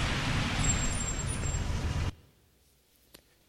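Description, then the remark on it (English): A car in a film scene with Sandra Bullock brakes hard to a stop on the road, loud rumbling noise with a high squeal lasting about two seconds, then cutting off abruptly into near silence broken by a single faint click. “Stop the car.”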